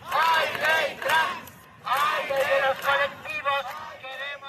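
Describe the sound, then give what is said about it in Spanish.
A large outdoor crowd in front of the lion statues of Spain's Congreso de los Diputados celebrates the passing of the trans law on a Thursday, cheering and chanting in loud, rhythmic bursts of many voices shouting together, with brief dips between phrases before the chanting surges again. “Lo que oyen es la celebración, el jueves, delante de los leones del Congreso de los Diputados, de esta ley, de la ley trans.”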